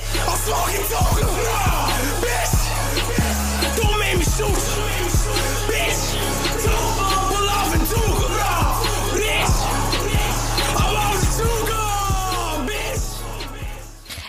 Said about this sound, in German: Wir hören uns jetzt mal einen kleinen Ausschnitt aus einem … an.